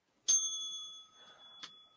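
A bright bicycle-style bell rings twice, a sharp strike with a long shimmering ring that lingers, then a second quicker ding about a second later, clear with no talking.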